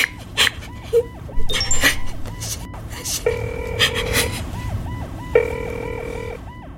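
A police car siren wails in fast, repeating rising-and-falling cycles, loud, with steady blaring horn tones breaking in twice over a busy street background.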